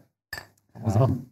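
Beer glasses clink together in a toast, with a short bright knock followed by a louder jumble of glassy contact and low voices.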